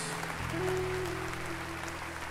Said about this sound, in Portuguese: Vamos dar mais uma salva de palmas que nós não cansamos de dar louvores e glórias ao nosso Deus.